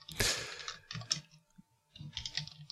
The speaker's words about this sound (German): Hattest du nicht eine leise Tastatur? Nein, die Maus ist leise. Ach so, die Tastatur okay.